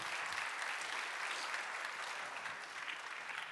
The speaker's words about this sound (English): Uh, let's, let's applaud the panelists.